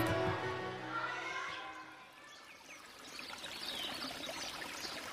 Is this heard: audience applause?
no